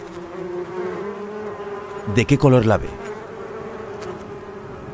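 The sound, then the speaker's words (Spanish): A steady, dense buzzing of many bees fills the whole recording, droning continuously; a voice briefly speaks a short question over it midway. “Imagine que está ante un enjambre de abejas.”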